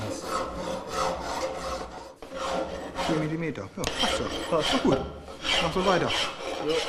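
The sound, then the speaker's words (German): A hand file rasps across metal in steady back-and-forth strokes as apprentice well builders are trained in metalworking, a gritty, fairly loud scraping repeated throughout, with faint voices murmuring underneath at times. “Brunnenbauer müssen fit in der Metallbearbeitung sein und beispielsweise feilen und schweißen können.”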